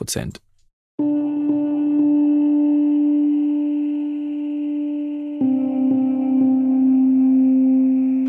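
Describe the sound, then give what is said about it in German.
A sustained synthesizer tone with a MIDI echo effect turned up to 100 shifts to a slightly lower note partway through, with soft repeated echoes of each note's attack trailing behind it, fairly loud and steady after a brief click at the start. “Wir haben ein MIDI-Echo und damit man es besser hört, stelle ich das jetzt mal hier wirklich auf 100”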